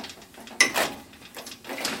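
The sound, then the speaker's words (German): Heavy archive shelving in the storage magazine of the Museum für Kommunikation in Berlin is cranked aside: a sudden metallic clunk, then a grinding, rattling slide that swells and fades, with a second hissing surge near the end. No one speaks. “kurbelt die schweren Regale zur Seite.”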